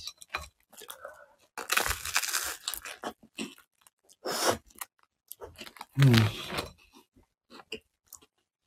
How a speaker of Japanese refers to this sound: はい、ということで朝ごはん食べながら失礼します。